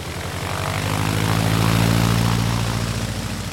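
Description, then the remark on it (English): A propeller airplane engine roars steadily, its low throbbing drone swelling louder in the middle as if the plane is revving and lifting off, with no voices. “He found himself spinning faster and faster as the airplane took off right out of his bedroom window.”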